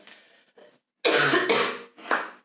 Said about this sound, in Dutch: Eh, nou, ik had hem even op pauze gezet, want ik kreeg een enorme hoestbui.